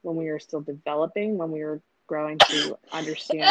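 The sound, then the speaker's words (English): A single short, sharp sneeze bursts out partway through a person's steady speech, fairly loud, and the talking resumes right after it. “oh, bless you.”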